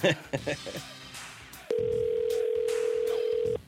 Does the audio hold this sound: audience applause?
no